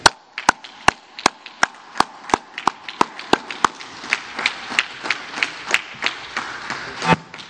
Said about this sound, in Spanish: Y mire, un aplauso para la maestra.